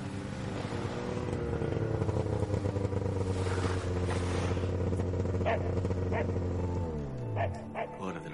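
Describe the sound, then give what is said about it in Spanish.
A motorcycle arrives at a house, its engine droning steadily with a low rumble for several seconds before winding down and slowing as it comes to a stop and parks, with a few sharp sounds near the end. “Los dos miran por la ventana y ven llegar a Patrick con la moto.”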